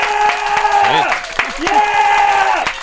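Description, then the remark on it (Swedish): Steady clapping from a show audience welcoming a comedian, mixed with loud whooping and cheering voices that rise and fall in pitch, carrying on throughout the few seconds. “Applåder!”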